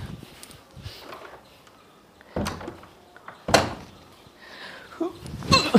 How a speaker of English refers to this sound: Wait, my door opened, let me just close it.